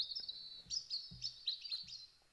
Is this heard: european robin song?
yes